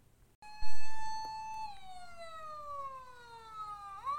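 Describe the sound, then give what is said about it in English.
A fire engine siren wails alone, with two big fire engines right outside a house: a loud, steady tone holds for about a second, then slowly slides lower in pitch before starting to climb again at the end. “Right outside our house, there are fire engines. Two big fire engines.”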